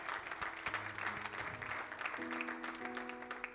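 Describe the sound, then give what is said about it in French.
An audience applauds steadily to acclaim the Lord, dense clapping filling the space, with sustained organ or keyboard tones rising beneath the applause. “Alléluia, acclamons le Seigneur ce soir.”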